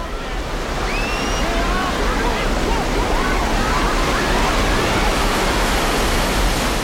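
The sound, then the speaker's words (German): A storm at sea: a steady, dense roar of crashing waves and rushing wind, loud and unbroken, with faint rising whistles of gusting wind drifting through the noise. “Aber kaum ist die Brücke fertig, kommt ein Sturm auf.”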